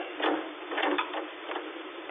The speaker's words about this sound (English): The man across the room, half reclining on the couch, his back turned toward me, did not hear the opening of the door.